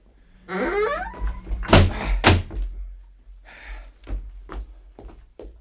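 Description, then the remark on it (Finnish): An unlocked door creaks and is flung open with two loud bangs, followed by a quick series of heavy thuds as men with pistols ready rush inside. No one speaks. “Ovi ei ilmeisesti ole lukittu. Ryntäämme sisään ja annamme paukkua.”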